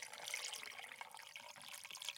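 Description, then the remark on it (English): Water is poured steadily into a container right at a microphone, a continuous bright splashing trickle that keeps going without pause as the container fills up. “Pour okay. the water I've in the microphone so they can hear.”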